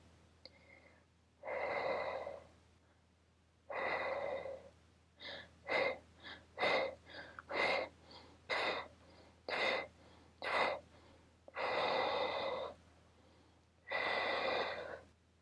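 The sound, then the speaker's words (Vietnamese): A person demonstrates a labor breathing technique for contractions, in through the nose and out through the mouth: long slow breaths, then a quick series of short rhythmic puffs, then long slow breaths again, with no talking. “Cái hơi thở nó sẽ như thế này, mình sẽ thở để cho các bạn nghe.”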